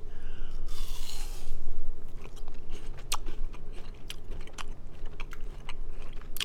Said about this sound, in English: So this apple, when you bite into it, is going to taste like apple pie. Oh my gosh! All right, I'm ready.